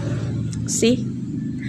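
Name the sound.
traffic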